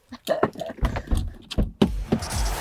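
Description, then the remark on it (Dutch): A bus door opens with a sharp mechanical clunk as a guest boards, followed by a steady hissing, whirring rush. Scattered knocks and rattles come beforehand, with faint voices mixed in. “Ja, de bachelor eh, mag de bus in.”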